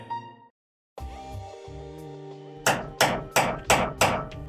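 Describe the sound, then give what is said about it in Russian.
Five or six sharp hammer blows strike in a steady rhythm, loud, over a bed of sustained background music, from a neighbour's renovation work on the other side of the wall. “А, будь ты проклят со своим бесконечным ремонтом, подумал я и пригрозил кулаком соседу за стеной.”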